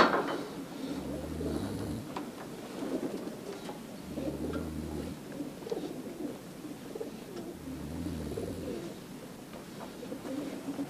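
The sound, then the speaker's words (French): Pigeons coo in low, repeated phrases, three clear rounds spaced a few seconds apart, over a steady outdoor hiss; no one speaks. “Quand on voit les oiseaux qui circulent dans tous les sens, c'est magnifique, hein, on se régale.”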